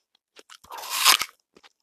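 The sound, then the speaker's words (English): A crisp bite into an apple followed by a loud, wet crunching burst, with a few smaller chewing crunches before and after. No talking. “By the way, I'm munching on an apple.”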